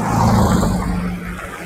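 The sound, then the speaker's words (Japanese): A steady, loud rumble of many car engines passing on a street on a Saturday, with a low droning hum and broad road noise that fades slightly toward the end. “車が土曜日なのに多いですね。”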